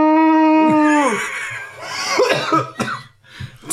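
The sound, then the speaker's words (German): A person coughs after vaping an e-cigarette: a drawn-out, strained wheezing tone breaks into a fit of harsh, raspy coughs, several loud, irregular bursts with no talking. “das Husten danach gehört dazu.”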